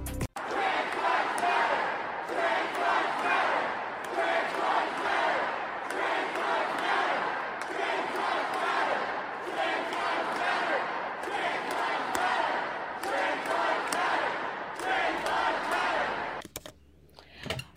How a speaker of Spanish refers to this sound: Bueno, ahí ustedes escuchaban, señores, Antifa, cuando se metieron al Capitolio, sí señora, al Capitolio de Oklahoma, minutos antes o, momentos antes del mensaje de situación del Estado.